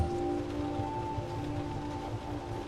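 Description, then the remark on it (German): Steady rain from a rain shower hisses continuously over a low, constant mechanical hum during a train journey, with no voices and no pauses for the whole stretch. “Straßenlaternen entlang der Strecke wirken wie verschwommene Lichtpunkte im Regenschleier und die vorbeiziehenden Häuser und Gebäude nehmen eine geheimnisvolle Aura an.”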